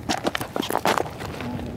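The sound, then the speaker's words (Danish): Crunchy footsteps at an easy walking pace on a stony, trodden coastal path along a cliff, about a half-dozen steps scraping over loose rock, with no voices. “Skal vi gå ind og kigge på den?”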